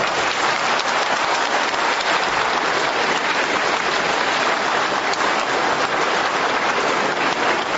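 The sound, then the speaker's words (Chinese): Sustained applause from a large audience at the close of a speech event at the University of Science and Technology of China, thanking Mr. Yi: a dense, even wash of many hands clapping at once that holds steady at full strength throughout, with no voices breaking through. “啊，等一下， 让我们再用最热烈的掌声感谢一下易先生。”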